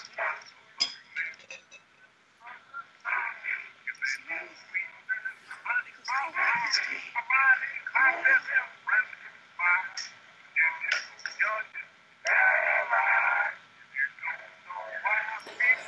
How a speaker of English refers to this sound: Every time I hear this like old jazzy like just I always think of the uh, lobby of the Tower of Terror. That is something that I'm ready for, like the horror genre to move past. This old jazzy like, music, I mean, cutesy jazz music,